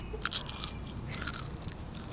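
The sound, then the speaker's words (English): Crisp crunching of fried crickets being chewed by tasters on the stoop outside a house, a series of sharp, bright bites and crackles in an irregular rhythm, with no talking. “But they aren't so sure about the crickets.”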